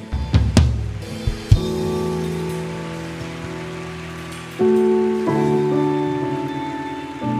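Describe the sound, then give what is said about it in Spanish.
Steady audience applause, a dense crackling patter, over sustained keyboard chords; the music swells louder around the middle while the clapping continues underneath, with no voices. “Veo que algo les gusta porque el nivel de aplauso sube.”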